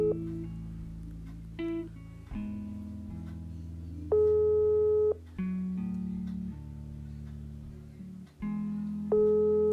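A phone call's ringback tone plays on its own, a simple electronic melody of sustained, steady tones that step between pitches at a moderate, even volume.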